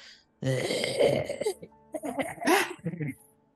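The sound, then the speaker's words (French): A human voice imitates the groan of something dragging itself among trees through leftover dead leaves as frost sets in: a few rasping, drawn-out moans with rising and falling pitch, separated by short pauses. “Il y a quelque chose qui se traîne, puis il y a quelque chose qui, qui gémit”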